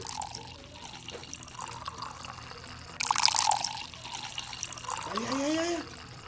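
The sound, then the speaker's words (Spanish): Homemade artisanal sangria without preservatives pours into a glass in a steady trickle, the splashing growing brighter and rising in pitch as the glass fills, with faint voices murmuring in the background. “Ok, ahí viene, vamos a ver. Sirve.”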